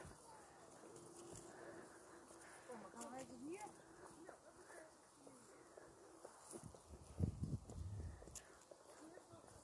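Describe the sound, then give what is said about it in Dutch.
Many people walk past outdoors in fine weather, their footsteps shuffling over steady open-air ambience, with pigeons cooing and faint voices murmuring in the background. “ben even aan het stoppen met praten, want er lopen in één keer allemaal mensen om me heen.”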